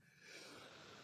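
A single breathy sneeze, a rough burst of air that holds for about a second before cutting off. It sounds fairly soft, with no talking.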